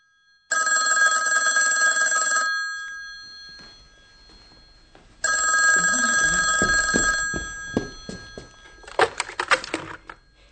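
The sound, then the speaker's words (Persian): An old-fashioned telephone bell rings in a country house in two long, loud bursts separated by a pause, followed by some clattering handling noises near the end. “آیا به خاطر دارید که در بخش پیشین تلفن خانه روستایی به صدا درآمد و فردی که تلفن کرده بود مایل به صحبت کردن با مردی جوان بود؟”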